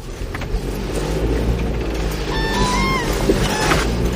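A heavy off-road car engine roars and revs steadily while churning through a very muddy forest track, with a rising whine from the drivetrain partway through. The rumble stays loud the whole time, with no talking.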